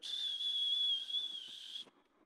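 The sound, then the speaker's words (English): A single sustained high-pitched whistle, held steady for nearly two seconds before cutting off abruptly: a voice imitating a golf ball hit at the golf driving range of Lone Tree Golf Club flying away. “one time he took me to the driving range, the golf driving range at Lone Tree Golf Club.”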